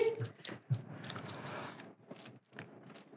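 Wet chewing of two pieces of gum with irregular smacking and squishing, steady and fairly loud for a few seconds, with a couple of brief pauses.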